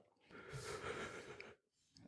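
A person yawns, one long drawn-out breathy exhale that swells and then trails off, followed by a short quiet breath at the end.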